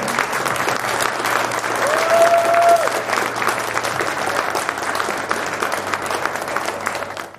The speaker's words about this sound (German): Aber ich habe einfach hier nur ganz tolle Gäste und deshalb einmal bitte einen tollen Applaus für alle Gäste, auch die, die jetzt nicht mehr da sind. Das soll die ganze Halle hören.